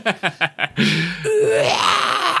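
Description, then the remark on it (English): A lo-fi digitized scream from the NES video game American Gladiators: four quick choppy yelps followed by a long, loud, strained cry that rises in pitch and holds to the end. “Well, I hope you say it's the scream because yes, of course it's the scream.”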